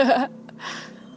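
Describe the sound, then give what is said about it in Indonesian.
A single motorbike passes outside, its engine a faint, low steady hum with a soft rush of noise swelling briefly, following a short burst of voice at the start. “ada suara motor kan guys iya mohon maaf ih heran gue juga udah jam segini masih aja rame kagak sih itu cuma satu doang”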